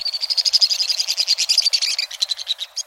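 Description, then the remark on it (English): A white-throated swift's shrill, rapid chattering trill off the sheer stone walls of a canyon in the U.S. West: dozens of sharp, high notes tumbling quickly one after another, loud and unbroken at first, then slightly thinner and more spaced toward the end, with no voices. “A torrent of shrill notes ricochets off the sheer stone walls of a western canyon.”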